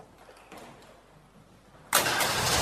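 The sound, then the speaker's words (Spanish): A car engine cranks and catches after a quiet stretch, bursting into a loud, steady rumble that holds to the end, as people get into the car and drive away. No one speaks. “Se suben el auto y se van.”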